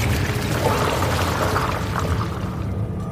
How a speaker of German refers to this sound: Und dort, wo in diesem Augenblick das Wasser verschwand, in den morastigen Untergrund schlug.